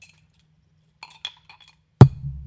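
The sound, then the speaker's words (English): Grolsch beer bottles clink together once in a toast, loud, with a sharp glassy ring. A few faint light taps come just before it, and a low rumble trails after. “This is we we forgot to have a cheers last time. Yeah. Cheers.”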